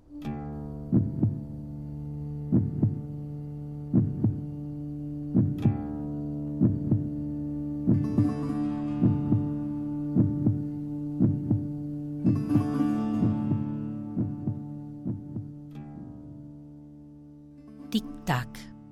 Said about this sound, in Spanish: Llenan la ausencia de un corazón que dejó de sonar fuerte, pero que en realidad no se ha ido del todo, porque lo escuchamos con la memoria, porque oímos su latir dentro del nuestro.